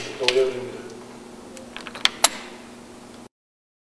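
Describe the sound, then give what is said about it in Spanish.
A couple of sharp mechanical clicks from a door lock as the locked door opens by itself, coming in quick succession over a low, steady background hum, with a softer rattle just before them. “Le acabo de poner pausa porque se escuchó el clic para que vean el sonido.”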